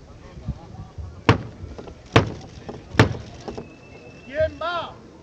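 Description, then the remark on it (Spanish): Three loud, sharp knocks on a heavy church door by the brotherhood's hermano mayor, the call of the Hermandad de la Incorporación during Holy Week (Semana Santa) 2023, evenly spaced about a second apart. Low crowd murmur runs underneath, and a voice briefly calls out after the knocking. “Pues ese triple golpe seco.”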